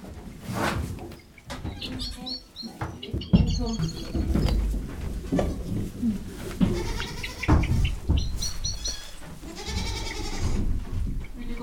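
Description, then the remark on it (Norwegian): Many goats bleat loudly and repeatedly inside a barn on a farm in Sogn, Norway, their wavering calls overlapping in a busy, echoing space, with a few faint bird-like chirps mixed in. “Og med det reiser vi tilbake til Sogn og rett inn i fjøset på Sandvik gård.”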